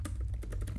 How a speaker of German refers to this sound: Und ihr hört mich tippeln im Hintergrund. Ich suche sie gerade im Internet.